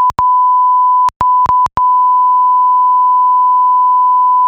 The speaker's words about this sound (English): Yeah, I just bleeped all that out. That was really offensive,